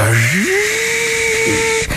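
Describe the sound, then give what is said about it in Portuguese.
A factory machine's motor starts up, its hum rising quickly in pitch before settling into a steady, loud whine with a constant mechanical drone that cuts off near the end. “já houve uma máquina que arrancou.”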